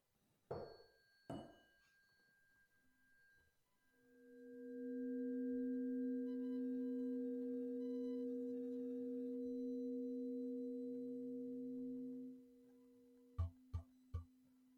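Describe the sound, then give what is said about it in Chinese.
A sound-healing instrument is struck twice, then a chord of steady, humming tones swells and sustains for several seconds before fading, followed by three quick metallic strikes. No one speaks. “现在我来示范另外一个和音，那你们也可以闭上眼睛聆听一下。”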